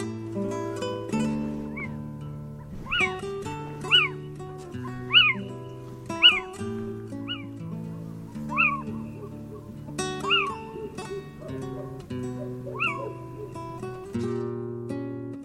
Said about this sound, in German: Das war der Steinkauz.